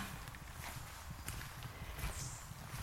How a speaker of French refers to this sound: C'est un monde de silence, aucun bruit, uniquement nos pas sous les feuilles mortes, uniquement leurs pas